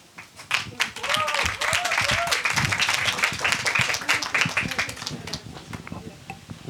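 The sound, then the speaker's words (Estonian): Dense, steady applause from an audience calling a third team onto the stage, with many overlapping claps sustained for several seconds, mixed with some cheering voices and shouts that rise above the clapping. “nii, kaks tehtud, kaks jäänud, seega nüüd on siis aeg aplausiga kutsuda lavale kolmas tiim”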